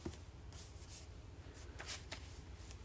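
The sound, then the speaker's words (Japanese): Soft, dry rustling as a hand rubs back and forth across notebook paper, comparing the smoother Continue Plus notebook with the grippier Campus notebook, a few brushing strokes over a low steady background hum; no one speaks. “あのコンティニュープラスの方がツルツルしてますだからボールペンとか万年筆とかはよく滑るんじゃないかなキャンバスノートの方がちょっと引っかかりがあるよね、まあ、単純に私の手がベタついている可能性もなくはないがうんうんやっぱりコンティニュープラスの方がサラサラしてます”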